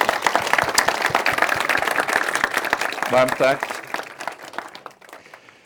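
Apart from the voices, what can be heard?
audience applause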